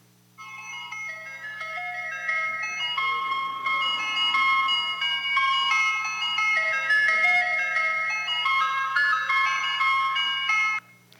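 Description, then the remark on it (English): An ice cream truck's tinny, music-box jingle plays a familiar, bouncy folk melody nonstop for about ten seconds over a faint low engine hum, steady in volume. No one speaks. “that is the sound of the playing that familiar melody, Turkey in the Straw”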